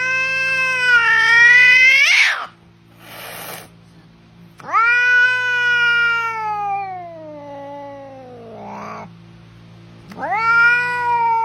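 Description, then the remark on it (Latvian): A domestic cat meows loudly in three long, drawn-out yowls with rising and falling pitch, separated by short pauses with a brief hiss-like burst between the first two. “Mīncīts, jā, mīncīts. Ļoti daudz cilvēku mājās dzīvo kaķi.”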